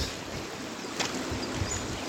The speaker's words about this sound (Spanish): Así amaneció el domingo acá rumbo a Tezopaco. Así están bajando los arroyos.